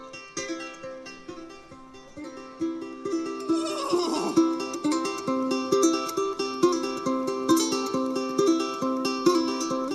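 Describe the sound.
A person imitates a horse's neigh: one shrill, wavering whinny that slides downward, set against steady, rhythmic background music that keeps going throughout.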